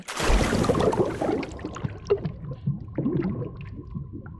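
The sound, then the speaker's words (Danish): A loud splash, as of a deep dive into the sea, opens, followed by water sloshing and gurgling with small bubbly pops, steady for a few seconds, with no voices. “dykke dybt ned i havet, endda helt ned på bunden af Marianergraven, over 10 km under havoverfladen.”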